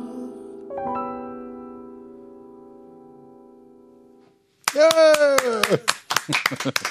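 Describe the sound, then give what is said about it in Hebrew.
A held musical chord from a song fades out, then a few seconds of loud, rapid hand clapping begin as the singer claps for himself, with a sustained voiced whoop riding over the first part of the applause. “פעם ראשונה שאני מוחא כפיים לעצמי.”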